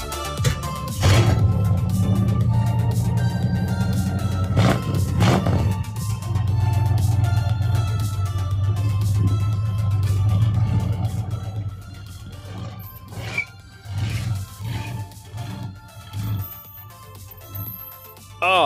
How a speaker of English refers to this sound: Listen to that V8 rumble. Also, as it chirps its tires idling across the ground. Isn't that amazing? I love that.